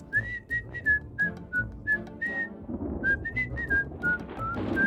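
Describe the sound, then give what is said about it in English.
A person whistles a tune of short, bright notes that rise and fall, sounding somewhat distant over a steady low background rumble. “It sounded like distant whistling.”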